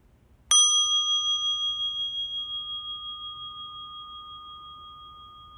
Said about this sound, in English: Mm, let's listen from our centers to the sound of the bell.